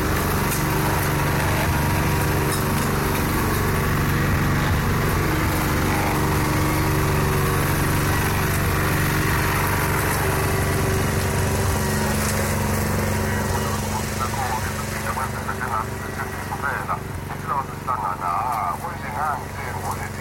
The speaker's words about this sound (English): The sounds of the sun were cicadas and sprinklers, hadeda birds, and the eternal droning hum of hundreds of lawnmowers.